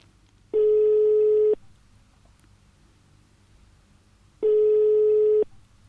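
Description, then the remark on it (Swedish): Two long, steady electronic ringback tones about four seconds apart, the sound of a phone ringing on the caller's end while calling a friend in a dance band orchestra at a farm in Dalsland, clear and loud over a faint hiss with no voices. “Men apropå dans, nu tänkte jag ringa upp en av mina vänner i … dansbandsorkester.”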